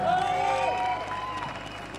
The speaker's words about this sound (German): Und umso größer ist der Applaus natürlich für alle die, die da drüben auftreten.